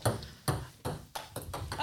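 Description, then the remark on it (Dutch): A table tennis ball bounces on a table during a game of table tennis in a quick series of about six sharp, bright clicks, spaced unevenly and slightly quickening, fairly quiet with no voices over them. “Ah, jammer, ik, ik, hoor, ik hoor hem iets te veel stuiter op de tafel.”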